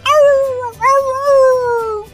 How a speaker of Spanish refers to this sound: en España oyen un perro que está aullando.